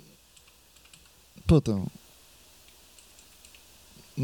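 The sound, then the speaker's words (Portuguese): Soft, irregular clicks of a computer keyboard being typed on, scattered through the whole stretch, with a short spoken exclamation cutting in around the middle. “Se, se o teclado fizesse menos barulho aqui, não daria tanta.”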